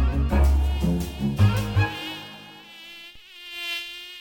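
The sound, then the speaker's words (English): A thin, high-pitched mosquito whine hums, steady and droning; deep thudding tones sound under it for the first two seconds before the buzz carries on alone. “The species in question are the three types of mosquitoes responsible for transmitting malaria.”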